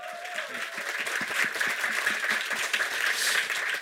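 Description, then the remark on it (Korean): An audience at a gathering in Korea, including people from Asan and Seosan, applauds steadily on request, dense overlapping claps forming a continuous wash of sound that stays loud and even for several seconds, with no talking over it. “박수 한번 부탁드리겠습니다.”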